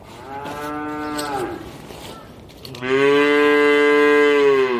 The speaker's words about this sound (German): Das kleine Kalb, das im Garten angepflockt ist, nimmt Kontakt zur weit entfernten Mutterkuh auf und beendet sein lautes Muhen erst, als seine Mama zurück durch den Garten und in den Stall geführt wird.